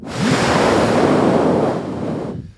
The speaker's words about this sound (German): dass in Rostock auch durchaus mal ein Wind weht. Ähm, und das wäre für euch wahrscheinlich einfach äußerst unangenehm.